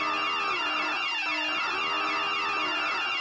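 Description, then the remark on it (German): A loud, harmonically rich alarm horn blares steadily for about three seconds, its stacked buzzing tones shifting pitch slightly partway through, with no voices. It is a running-gag alarm, the technician's idea, sounded whenever someone says a particular word. “Immer wenn jemand äh, also ja. Mhm. dieses Wort sagt, gibt's Alarm.”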